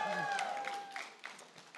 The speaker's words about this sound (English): Now, I'm going to give you a few cues. There's a few moments throughout the service where you cheer or clap. That's one of them.